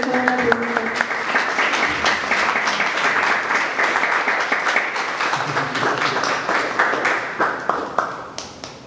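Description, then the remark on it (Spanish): A crowd at a talk on bhakti applauds a questioner steadily for several seconds, a dense, even patter of many hands clapping at once that holds its loudness before thinning slightly toward the end. “Es una buena pregunta, denle un aplauso por”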